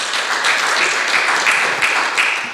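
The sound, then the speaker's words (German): A crowd applauds steadily, dense overlapping claps forming a continuous, fairly loud wash of sound with no voices over it. “Applaus”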